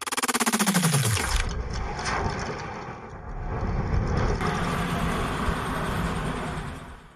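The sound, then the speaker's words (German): The machinery of a whole tower, set off by a lever being thrown, sputters in rapid rhythmic pulses while a low whine slides downward, then gives way to a steady, loud jolting rumble with rattling and creaking throughout; no one speaks. “Der ganze Turm stotterte und ruckelte und knarzte.”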